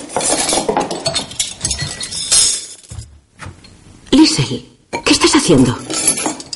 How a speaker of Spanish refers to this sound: Más tarde, Lore y una hermana recogen una vajilla. La madre entra a la cocina. Solo seis platos y tazas, pero coge los cubiertos de plata. Todos.